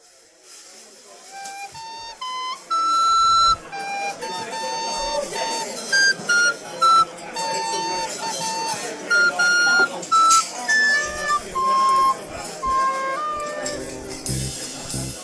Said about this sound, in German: Und dann dachte ich, spielst du jetzt einfach mal, lass uns das Klavier heute mal weg und Du spielst es einfach auf der Flöte.